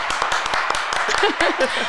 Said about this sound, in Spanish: van los aplausos, Sí, por favor.